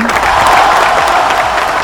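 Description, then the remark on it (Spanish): Steady audience applause welcoming a national poet, a dense, continuous patter of many hands clapping at a fairly loud level, with a faint voice briefly audible underneath. “Seguí aplaudiéndole.”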